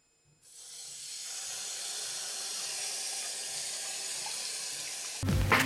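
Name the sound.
water running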